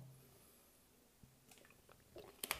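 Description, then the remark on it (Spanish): Someone takes a small sip of water: a quiet pause, then soft wet mouth clicks and a swallow, with no talking. “Bueno, antes de nada, si me permitís, voy a beber un pelín de agua”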